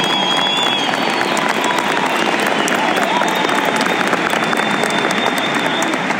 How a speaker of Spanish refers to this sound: denles un fuerte aplauso por hacerlo posible.